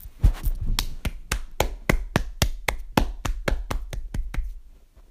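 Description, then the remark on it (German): Steady hand clapping, fairly loud, around fifteen sharp claps at an even pace of roughly three per second, with no talking. “Und dafür muss man ja erstmal klatschen.”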